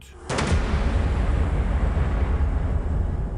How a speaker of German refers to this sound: Die Trommeln lassen bei laut aufgedrehter Anlage die Kinositze vibrieren, mal klingen sie hart wie ein Salut